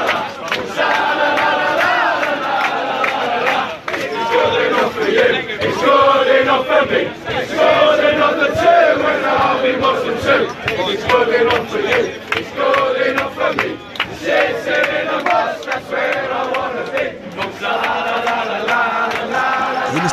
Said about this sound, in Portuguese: Ele não para de fazer gol egípcio e ganhou uma música bem interessante da torcida do Liverpool.